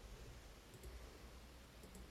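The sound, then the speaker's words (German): Faint keyboard typing: a couple of short pairs of soft key clicks spaced about a second apart, over a low steady background hiss, with no voices. “Da wird, werden fleißig äh, getippt.”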